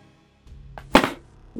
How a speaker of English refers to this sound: Your arrow flies true, shrieking to the side of this massive beast. 7 damage.